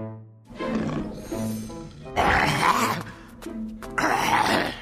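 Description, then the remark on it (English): A voice imitates a lion in a story coughing to try to cough out Wukong, who is inside him: a low, groaning build-up followed by two loud, raspy coughing bursts, with no other sounds around them. “the lion coughed again but still Wukong stayed inside him.”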